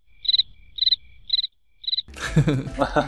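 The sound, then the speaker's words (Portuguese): Four evenly spaced bursts of high, trilling cricket chirps ring out clearly in otherwise quiet surroundings, then a voice starts talking right after the last chirp. “Coloca quem... um cri-cri-cri aí, ó,”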